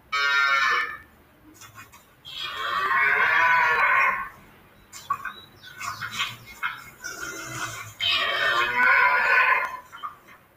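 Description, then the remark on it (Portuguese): A cow moos three times, long drawn-out calls with short gaps between, loud, with some clattering noise in the pauses. “Aqui está a vaca.”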